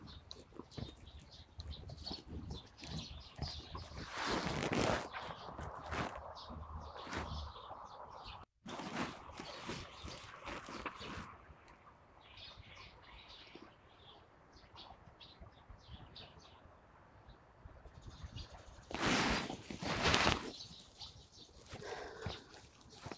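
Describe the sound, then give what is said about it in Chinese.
Birds call and chirp continuously at dawn, around 6 a.m. during the National Day holiday, by Kunming Lake in the Summer Palace, a dense layer of quick, high tweets over a steady hiss, with two louder bursts of sound swelling briefly and no voices. “国庆假期观鸟：凌晨6点颐和园的寂静之声”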